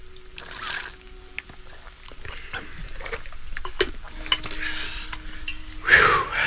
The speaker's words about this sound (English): So with that, I'd like to consume some water as we actually, you know, drink consciousness in our way. Mm-hmm. So let's do that.